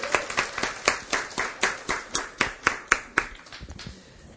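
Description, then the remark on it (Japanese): A church audience applauds in thanks to those who served and prepared things for Christmas, with steady, rhythmic clapping, about four claps per second, moderately loud with a roomy echo, then trailing off softly at the end. No one speaks. “またクリスマスのあらゆるこの、えーケーキとかそういうものも用意してくださった方々に本当に心から感謝しますありがとうございました皆さんで拍手を送りましょう感謝しますありがとうございます”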